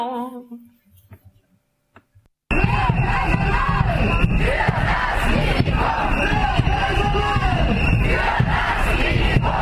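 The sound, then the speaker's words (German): A large crowd of about 1000 striking protesters, marching on a Thursday afternoon after a first warning strike from the Freiburg university hospital into the city centre and demanding relief, roars and chants together in a loud, dense wash of voices that bursts in suddenly after a brief quiet moment with a few faint sounds, then holds steady. “Nach dem ersten Warnstreik zogen rund 1000 Menschen am Donnerstagnachmittag von der Freiburger Uniklinik in die Innenstadt und forderten Entlastung jetzt.”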